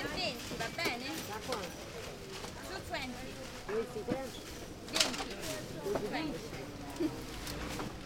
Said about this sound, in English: So we are at Campo de' Fiori Market right now.